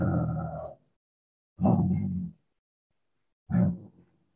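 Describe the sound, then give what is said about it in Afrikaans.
Three loud lion-like roars voiced by a person, each a rough, throaty burst lasting under a second, separated by short silences. “Dis wat die Here wil hê, want die oomblik as jy uitgaan en begin grond soos 'n leeu, gaan 'n bietjie so leeu saam.”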